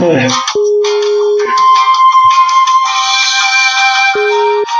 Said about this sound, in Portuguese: Opa! Que musiquinha de fundo é essa? Tá ouvindo a musiquinha de elevador? Tô. musiquinha de espera.